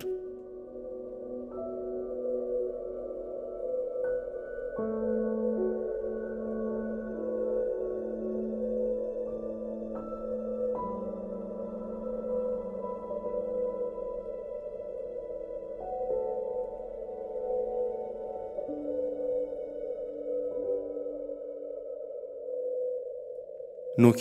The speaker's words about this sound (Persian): که نیروی دریایی آمریکا را متعجب کرد فرکانسی بود که صدا در آن شنیده میشد فرکانس 52 هرتز اما قصه تنهای نهنگ اینجا شروع شد که صدای نهنگ ها در این فرکانس نیست